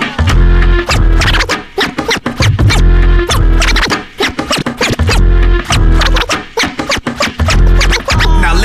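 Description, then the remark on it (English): DJ Charlie Hustle scratches records on turntables: rapid scratches cut back and forth over a loud, thumping beat, sharp bursts stuttering in quick rhythmic clusters for several seconds with no voices. “And this guy right here on the turntables is DJ Charlie Hustle, the million dollar DJ.”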